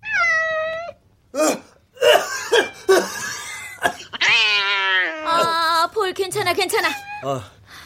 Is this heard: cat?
yes